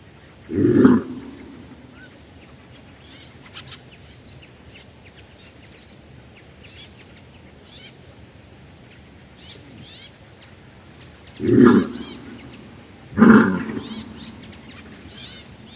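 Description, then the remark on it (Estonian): Three hoarse, coughing barks of a moose warning call, given at possible danger, ring out, one early and two close together near the end, over a quiet outdoor background with faint bird chirps. “võimaliku ohu korral teevad nad hoiatavat häält, mis kõlab nagu käreköhatus või haugatus.”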